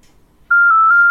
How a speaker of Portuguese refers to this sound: Vou ligar. Vê se vai chamar aí.